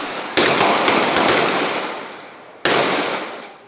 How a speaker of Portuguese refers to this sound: As ruas se transformaram numa praça de guerra. As marcas das balas ficaram por todos os lados. Olha, foi uma guerra. Foi guerra. O tiroteio entre policiais e criminosos foi gravado pelos moradores.